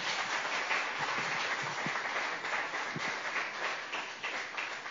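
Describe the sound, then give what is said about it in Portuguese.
An audience applauds Jesus in a steady, dense wash of clapping that holds at an even level for the whole stretch, with no voices rising above it. “Vamos aplaudir a Jesus bem forte.”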